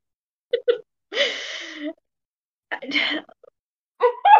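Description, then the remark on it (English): Someone vocally imitates the whistling fart of their dog, Scotch: two quick clicks, then a few breathy, sputtering blown bursts with a thin rising whistle at the end, with no other sound. “a little bit of a whistle.”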